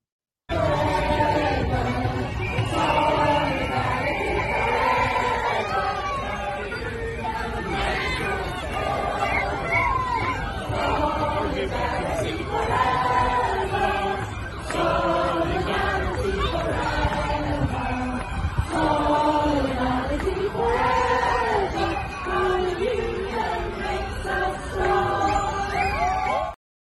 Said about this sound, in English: So I want us to hear a, a, a chant of solidarity from some of the teachers that were amongst the crowds there today.